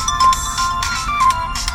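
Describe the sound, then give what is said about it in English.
A phone ringtone chirps loudly for an incoming call, a bright melodic pattern of short repeating electronic tones that fills the whole moment with no talking over it. “That's our phone going off.”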